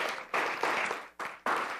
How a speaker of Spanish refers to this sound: Denle el aplauso al Señor, estamos de pie, aleluya.